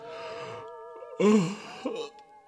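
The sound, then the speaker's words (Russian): A person gives a single drawn-out, breathy yawn that swells and then trails off, against a steady electrical hum running through the background. “Зевает.”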